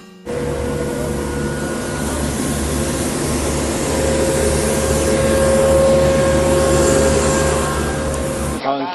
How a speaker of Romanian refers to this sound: A ieșit omul să țină o conferință pe stradă și, ce să vezi, imediat a apărut o turmă de mașini de la salubritate ca să-l bruieze